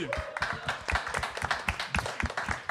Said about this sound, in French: On espère qu'on pourra revenir. Je pense qu'on peut les applaudir